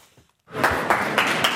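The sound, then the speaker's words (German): After a brief near-silent moment, an audience in Munich applauds Archbishop Georg Genswein: a dense, steady wash of many hands clapping, holding fairly loud and even to the end, with no voices over it. “Georg Genswein bekommt Applaus vom Publikum.”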